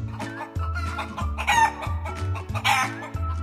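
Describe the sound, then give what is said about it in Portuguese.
A rooster crows in the yard and a hen clucks in short bursts to call her chicks, over a steady musical backing with changing bass notes, fairly loud, with no talking. “Quando a galinha deseja chamar os pintos que aninha, como é que faz a galinha? Cacareja.”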